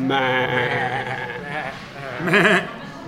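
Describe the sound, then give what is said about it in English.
A man's voice imitates a sheep, drawing out a nasal, sustained bleat and ending with a shorter, quavering "baa". “Rubbish sheep.”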